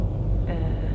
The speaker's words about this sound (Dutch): Ik zit in de auto ehm, en de sorry voor het lawaai.